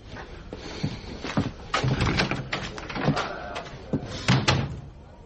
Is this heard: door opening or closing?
yes